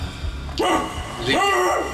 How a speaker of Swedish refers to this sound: Släpp in hundarna! det strömmar in några, några hundar men de, de stannar nog till efter ett tag.